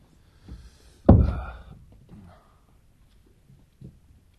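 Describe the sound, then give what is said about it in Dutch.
A single solid thump of a door being shut behind someone who has just come in, with a brief low rumble trailing off, surrounded by faint shuffling and small knocks. “Doe wel de deur achter je richten.”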